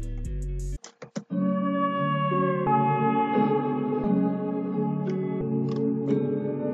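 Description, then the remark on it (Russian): A synth melody slowed to half speed by a Gross Beat plugin, its sustained notes sounding low and drawn out, with a brief stuttering chop near the start before the tones glide on steadily. “Далее добавил плагин Грузбит, который замедляет мелодию в два раза.”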